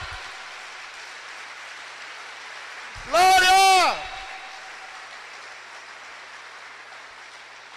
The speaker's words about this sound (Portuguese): Pode aplaudir ao Senhor por isso. Glória!